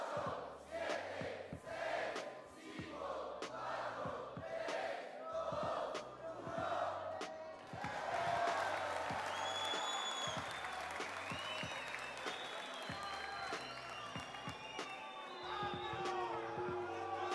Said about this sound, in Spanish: Fuerte ese ruido, loco, fuerte aplauso. Fuerte ese aplauso para...